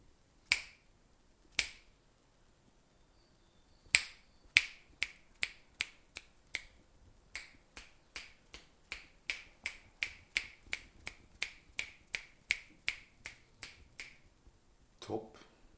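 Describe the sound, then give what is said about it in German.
Sharp, crisp finger snaps placed left, centre and right in the stereo image, recorded with a Zoom iQ6 microphone on an iPad using the Voice Record app: two spaced apart, then a long run of about eighteen snaps at a steady, even pace, each a bright click with no talking. “Wir machen jetzt mal einen alten Trick und zwar einen Fingerschnipp links, in der Mitte und rechts und schauen mal, wie sich das im Stereobild auswirkt.”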